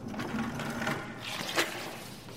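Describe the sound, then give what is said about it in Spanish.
A bucket of water is dragged slowly along a stone floor down a church aisle by a priest mopping, a steady grinding scrape lasting a couple of seconds with a brief sharper knock near the end. No one speaks. “Al recorrer el pasillo va arrastrando el cubo de agua poco a poco.”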